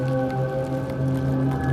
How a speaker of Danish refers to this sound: Og så tilsætter vi en lidt snorende, flydende musik.